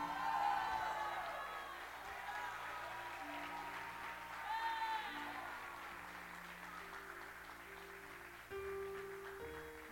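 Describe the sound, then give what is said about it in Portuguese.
A large church audience erupts in sustained shouts of joy in the name of Jesus, with cheering and applause, loud and continuous for the whole stretch, with scattered high whoops rising above the roar and a steady low musical tone underneath. “Por isso, se você veio nessa noite clamar a ele, você vai dar um grito de júbilo agora em nome de Jesus.”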